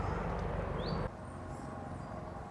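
A steady low rumble of a helicopter circling overhead, loud at first and then dropping to a softer drone that continues without any voices.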